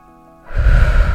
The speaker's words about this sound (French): La respiration. My god, je pense qu'on prend pas le temps de respirer, prendre des grandes inspirations.